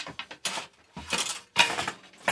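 A fold-out counter on a converted, enlarged bicycle trailer being swung open, with a series of clattering, clicking mechanical bursts: a few quick rattles, then longer scraping clunks as the parts unfold. No one speaks.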